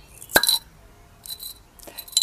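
champagne bottle cork popping

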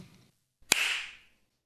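single hand clap

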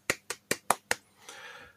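small round of applause

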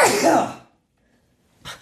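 sneeze

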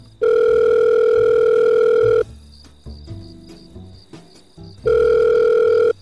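telephone dial tone

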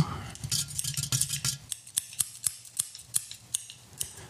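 scissors snipping

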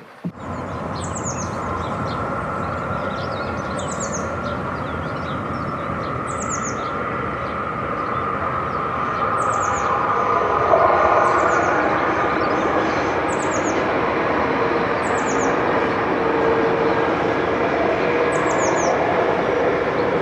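toilet flushing

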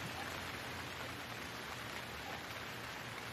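rain falling

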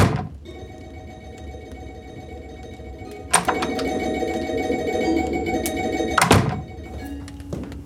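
telephone ringing

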